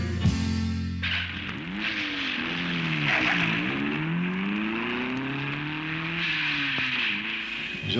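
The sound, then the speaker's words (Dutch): An engine sputters to life, then revs up and down in a series of loud whining surges over a steady roar, with no voices. “motoren zijn gestart om de studio uit te vliegen.”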